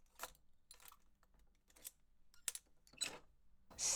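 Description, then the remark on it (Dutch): A long, old-fashioned key with several teeth scrapes and clicks in a lock: several sharp metallic clacks spaced irregularly, fairly quiet, ending in a louder rattling clunk with no voices. “Met eh, verschillende tanden en eh, een hele lange sleutel. Hij gaat dus bijzondere. in het slot.”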